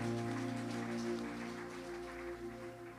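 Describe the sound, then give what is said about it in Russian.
A church audience applauds for the Lord in a dense, continuous patter of clapping, with sustained musical tones humming underneath; the applause stays loud throughout, easing only slightly in the second half. “Давайте дадим Господу аплодисменты.”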